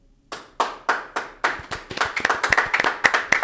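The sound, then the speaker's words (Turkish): An audience starts clapping, a few slow, evenly spaced claps at first, then more hands join and the applause grows into quicker, overlapping claps. No one speaks. “Birden alkış geldi.”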